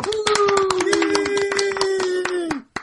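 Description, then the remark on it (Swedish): Brisk applause from a small group welcoming two new helpers, many claps in quick uneven succession, with a steady held vocal tone sounding underneath until both stop abruptly. “Vi applåderar dem också.”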